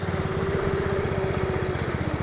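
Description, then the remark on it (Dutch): A go-kart engine roars steadily at a loud, buzzing, fairly constant pitch with a rapid chugging pulse underneath, running on its own for a couple of seconds with no talking, as boys drive karts. “Jongens, eh, jullie hebben net gekart.”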